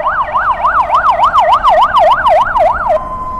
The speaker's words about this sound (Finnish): Ja myös ambulanssien äänet kuuluvat oleellisesti